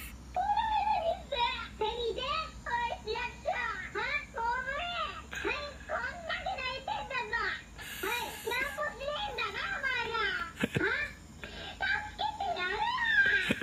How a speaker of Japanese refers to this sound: あのさ、赤ちゃん目の前に泣いてます